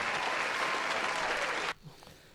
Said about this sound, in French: Mais on va quand même applaudir ta, chronique, tout.